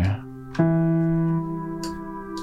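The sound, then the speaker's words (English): A lo-fi synth piano preset plays a couple of sustained chords with a soft attack and warm harmonics, slightly muffled, with faint crackly noise bursts layered over the ringing tones. “All right, this is a piano. Finally, we do have a piano here. Classic chiasm piano.”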